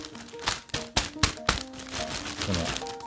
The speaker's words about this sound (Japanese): この袋の音が聞こえてると思うんですけどこれが届きましたはいで急に届いたんだよね